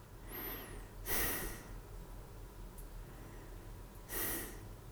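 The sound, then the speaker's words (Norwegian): Two soft, airy breaths spaced a few seconds apart, quiet, slow and deliberately restrained, as a person breathes a little less than they feel like during a breathing exercise. A steady low background hum plays underneath, with no talking. “Jeg prøver å puste litt mindre enn hva jeg føler for.”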